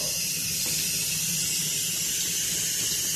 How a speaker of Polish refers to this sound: Kurde, jaka gorąca woda. Dlaczego woda musi być taka mokra i, i taka gorąca, ja się pytam.